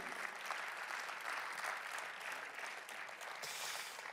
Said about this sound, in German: Darum vielen Applaus mal.